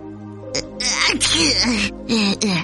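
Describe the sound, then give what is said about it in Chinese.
A voice acts out a series of exaggerated sneezes by Mr. Sneeze, a few breathy, wheezing build-ups each ending in a sharp, loud, hissing burst, with no other talk around them. “有个人突然打了个喷嚏，哦，是喷嚏先生。”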